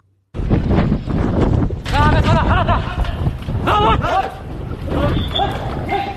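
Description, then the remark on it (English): Men shout over a loud, steady roar of wind and engine noise as Houthi rebels board a ship in the Red Sea, the voices urgent and overlapping through the rushing buffeting of the microphone. “That is the sound of a ship being boarded by Houthi rebels in the Red Sea, and it's exactly three months since the attack.”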